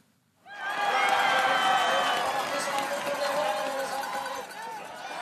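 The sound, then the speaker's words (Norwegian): A ski stadium crowd at the Biathlon World Championships in Holmenkollen, Norway, cheering Tiril Eckhoff loudly and continuously during a race, a dense roar of many voices with shouts and whistles rising above it, starting abruptly after a brief silence and sustained throughout. “Tiril Eckhoff ble heia fram av et livlig Kollen-publikum, selv om bare litt over halvparten av de 25 000 billettene til gårsdagens renn var solgt.”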